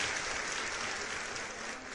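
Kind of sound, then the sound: crowd, crowd cheering and applause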